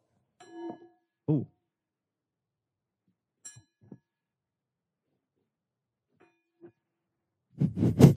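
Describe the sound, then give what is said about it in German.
Several metallic strikes with short, ringing, bell-like tones, spaced irregularly and fairly quiet, followed by a louder, clattering burst at the end, made by a spoon hung on a string struck against a table edge. No one speaks. “Äh, mit dieser in ihr Glocke gegen eine Tischkante oder ähnliches.”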